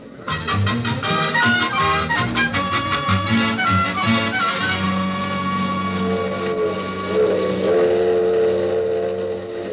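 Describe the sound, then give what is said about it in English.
A passenger train, the Super Chief, pulls away from Union Station, its rapid rhythmic chugging loud at first, blending into a steady rumbling roar with sustained tonal hums, no voices. “The super chief now departing.”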